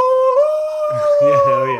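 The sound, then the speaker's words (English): Someone imitates a loon's wail: a long, steady, high tone held loud, with another voice speaking briefly over its second half. “All right, so there's uh, that loon call that, and this isn't in documentaries, but like, doesn't matter what country they're in, like, no matter what, there's a spooky scene that yeah,”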